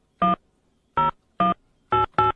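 Five short telephone keypad tones beep out one after another at uneven intervals as a phone number is dialed, each a brief, bright electronic bleep of steady loudness, with silence between them and no talking.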